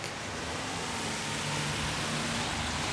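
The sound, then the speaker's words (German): A steady, broad hiss of car traffic on a wet street through a village on a rainy midday, with tyre swish and a low engine rumble blending into continuous rainy noise, moderately loud and without voices. “An diesem verregneten Mittag ist es eine Straße durchs Dorf lärmig.”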